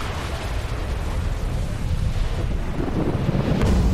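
Loud, steady rushing wind roars across the whole clip, buffeting and gusting during a full-throttle broomstick flight toward the moon, swelling slightly stronger toward the end with no voices.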